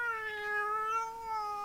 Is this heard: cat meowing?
yes